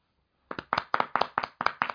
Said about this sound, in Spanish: Sus aplausos respectivos, mano. Sus aplausos respectivos para un podcast que tenía desde el primero de enero de 2020 a las 0 horas, me parece.